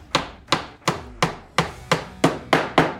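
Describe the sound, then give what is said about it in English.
A hammer strikes eight times in a steady rhythm, each blow a sharp, bright knock with a short ringing decay, fairly loud, with no voices. “Hammer. Hammer.”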